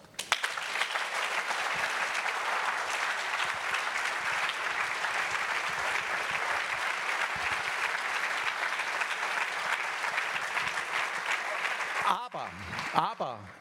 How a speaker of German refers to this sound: Das, Frau Primaria, ist Ihr Applaus.